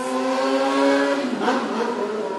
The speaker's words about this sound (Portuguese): É, só tava esperando a moto passar.